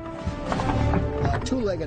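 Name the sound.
horse hooves clopping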